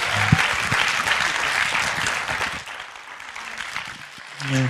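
An audience claps steadily, a dense wash of applause that holds for several seconds before easing slightly, with faint voices poking through near the end.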